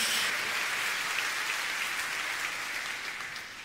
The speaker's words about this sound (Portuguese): Pode dar uma salva de palmas ao Senhor, querido. Pode dar um glória a Deus em nome de Jesus.